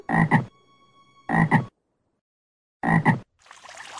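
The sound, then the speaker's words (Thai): Three loud, close frog croaks, each a short raspy burst spaced with pauses, followed by a soft noisy wash like splashing or rustling water at the end. “หลังจากนั้นเขาก็ได้มองดูตัวเองที่สะท้อนบนผิวน้ำก็ได้พบว่าเขาได้กลายเป็นกบไปเสียแล้ว ทำให้เขาต้องว่ายน้ำหนีไปด้วยความอับอาย”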